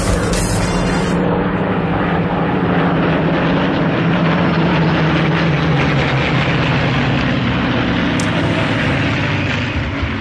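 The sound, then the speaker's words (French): Second World War propeller aircraft engines drone loudly and steadily overhead, a thick continuous roar with a low throbbing hum that holds for the whole stretch, with no voices: the sound the British heard during the three summer months of the Battle of Britain. “les Britanniques il y a 80 ans pendant l'été pendant les trois mois qu'auront duré la fameuse bataille de l'Angle bataille”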